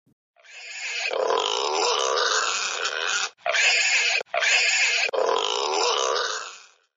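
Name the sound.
wild boar grunting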